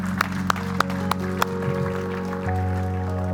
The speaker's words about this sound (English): Let's give the Lord a clap and thank Him. Thank you for it, Lord.